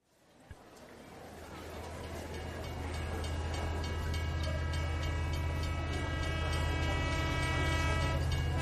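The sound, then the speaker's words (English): A train approaches and grows steadily louder, its wheels clacking in a rapid, regular rhythm over a deep rumble, with sustained tonal notes like a horn sounding above. “the train. So that is our signal for Korea Unveiled.”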